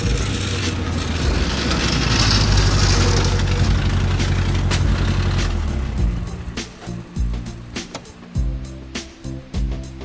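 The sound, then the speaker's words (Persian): An old, worn-out car's engine idles at a repair garage with a rough, rattling rumble, steady at first and then breaking into uneven chugs and sputters, like a leaky exhaust that needs replacing, with no talking. “Na, da ist wohl ein neuer Auspuff fällig.”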